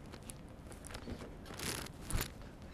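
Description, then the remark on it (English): Food being stirred in a pan: irregular scraping and crunchy, crackling bursts rising and falling over a few seconds, with one sharper scrape near the end and no talking. “And uh, this is basically the whole, let me just stir this a little bit, and the whole, whole bottom of the pan seems, this is like fabulous.”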